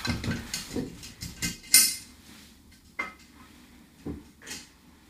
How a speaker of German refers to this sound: jetzt kannst du das Glas mal äh, aufmachen. Jeder darf nämlich eine Frage ziehen.